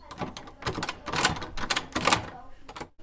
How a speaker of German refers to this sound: An dieser Tür steht Chefredaktion, Schrägstrich Musikredaktion. Ich will hier mal reinschauen. Oh, hoppla, zu. Ich habe jetzt einen Schlüssel bekommen. Und damit sperre ich es auf.